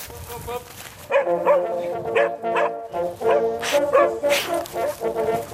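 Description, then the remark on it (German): A hunting dog barks and yelps during a driven hunt in woodland with fallen trees, in a rapid, uneven series of loud, high-pitched calls, with a brief pause before the barking resumes and continues to the end. “Da saß der Hund rum, der nächste.”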